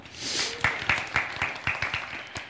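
A short burst of audience applause: a steady wash of clapping with sharper individual claps standing out in a quick, fairly regular rhythm, at moderate loudness and with no talking over it.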